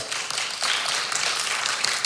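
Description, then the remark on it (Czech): Steady crowd applause for 290 hectares, many hands clapping in a dense, even patter that swells slightly after the first half second and holds at a fairly loud level throughout, with no voices heard. “290 hektarů, to už stojí za potlesk.”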